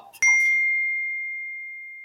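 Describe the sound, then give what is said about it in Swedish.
Glasses clink together in a toast, a single bright, high-pitched ding after a faint rustle, then a pure ringing tone that slowly fades out over about two seconds. No one speaks. “Sen vet jag inte om den var så fräsch, men, men en skål, det, det är den ändå värd. skål på den! Skål allihopa!”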